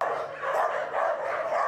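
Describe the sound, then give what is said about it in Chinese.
A crowd of stray dogs kept in iron cages at an animal shelter barks all at once, excited at seeing people come, a loud, dense chorus of overlapping barks and yips with no real pauses and no voices. “关伫铁笼仔内底，这个狗仔若看到人来，拢会真激动，希望有人甲因带转去。”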